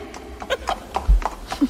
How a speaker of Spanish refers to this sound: ¡Qué maravilla este coche de caballo! Dale ahí al látigo, Juan.